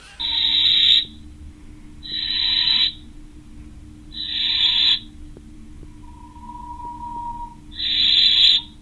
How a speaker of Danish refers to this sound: Altså lige nu, der sidder vi og kigger ind i en kirkeulkasse. Det her, det er direkte. Øh, så du kan høre en kirkeulunge, der sidder og tigger efter mad.